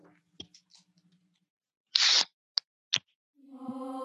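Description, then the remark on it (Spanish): Beers being opened: a short burst of fizzing hiss, then two sharp clicks, followed by a steady buzzy hum at the end. “Pero bueno, muchachos, destapen sus polas, por favor. Que, es, que se escuchen, que se escuchen.”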